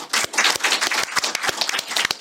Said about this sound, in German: Ja gut, dann äh, vielen Dank vor allem ans Publikum. Also Applaus an euch selbst. Super.